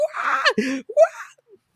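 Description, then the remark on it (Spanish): Someone imitates crying from emotion, a strained wailing voice in two short bursts with a quick break between them, fading off at the end. “yo estaba y llorando de la emoción, like,”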